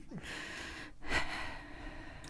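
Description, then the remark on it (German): Heavy, snorting breaths of a person panting while sitting in front of a microphone, a sharp nasal intake around the middle followed by a rough, drawn-out exhale, with no talking. “Sobald ich hier davor sitze, fange ich an zu hecheln.”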